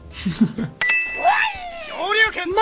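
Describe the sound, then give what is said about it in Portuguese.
A brother's mobile phone rings with a short burst of steady electronic tones, fairly loud, partly buried under a voice making high, sliding, meow-like sounds. “O celular tocou.”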